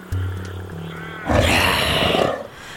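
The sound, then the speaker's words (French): A low, steady rumble gives way to one loud, harsh roar of a big prehistoric cat, a saber-toothed tiger, lasting about a second before fading out. “Je suis persuadé que tu vas trouver le coin idéal pour surprendre ta proie le tigre à dents de sabre chasse en embuscade.”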